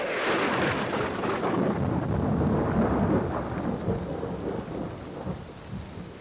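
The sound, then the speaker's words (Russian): A heavy thunderclap booms and rolls on for several seconds over steady, dense rainfall, the rumble slowly fading while the downpour keeps hissing loudly throughout. “И вслед за этим молния”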